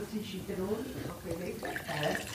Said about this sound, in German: Da noch einschenken, gell?